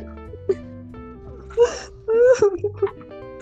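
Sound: exaggerated mock crying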